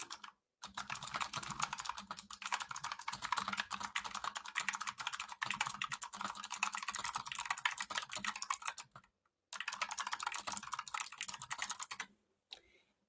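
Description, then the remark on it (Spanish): Rapid, steady, clear keyboard typing as someone writes something down, clicking continuously for several seconds, pausing briefly, then resuming before a few final keystrokes. No one speaks. “Porque, a ver, déjenme escribir esto.”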